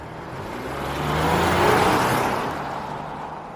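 car driving

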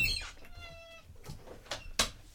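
cat meowing outside

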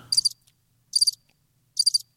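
crickets chirping

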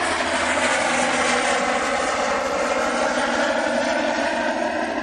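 helicopter flying overhead

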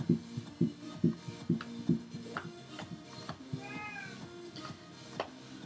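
cat meowing

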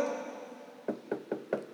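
knocking on a door

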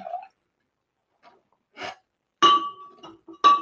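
glass clinking

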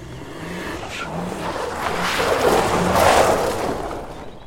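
taxi driving away

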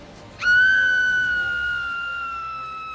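woman's scream sound effect

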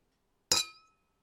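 glasses clinking

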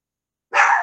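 dog barking

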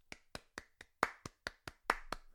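hands clapping

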